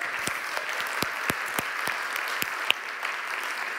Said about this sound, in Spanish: Amén, ¿cuántos lo creen? Amén, denle un aplauso a ese Dios.